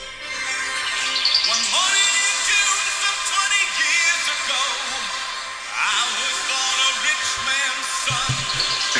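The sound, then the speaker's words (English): A 1980s pop song about freedom plays loudly and continuously for several seconds, with a bright, layered mix and a melodic vocal line, briefly dipping in volume midway before swelling again. “and he's singing it and it's, it's a very like inspiring song to people um, about freedom and it just kind of sounds like this hold on”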